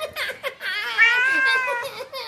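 A kitten meows in distress while being held in a chokehold, a few short squeaky cries followed by one long, strained, wavering wail, loud and alone with no talking.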